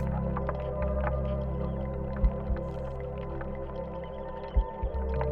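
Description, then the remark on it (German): A low, steady droning hum fills the background while a handful of soft, sporadic drips or plinks of melting ice land every couple of seconds. No one speaks. “Hörst du wie es schmilzt.”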